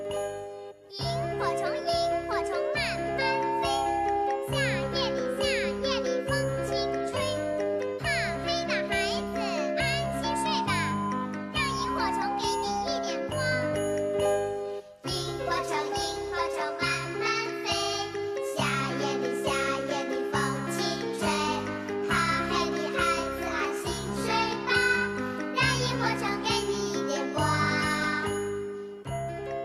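A lively children's song plays on a children's radio broadcast, its bright, tinkling melody riding over a bouncy, regular beat at an even, fairly loud level, with a brief dip midway.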